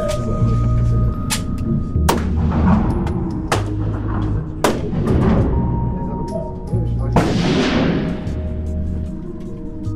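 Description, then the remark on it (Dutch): Several loud, sharp 9 mm gunshots from an indoor shooting range ring out at irregular intervals, each with a short echoing tail, muffled as heard through two open doors, over a steady low background hum; someone is learning to shoot around midday. “Als er twee deuren open zijn, dan kun je de knal horen ja, vanuit de schietstand.”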